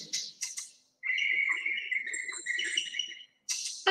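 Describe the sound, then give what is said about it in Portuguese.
Maracas, a type of shaker much used in Afro-Caribbean rhythms, shaken in a few quick, bright rattling bursts at the start and again at the end, with a sustained high, wavering chirp-like tone filling the middle. No one speaks. “Na, é, na verdade, são maracas, tá? Que é um tipo de chocalho.”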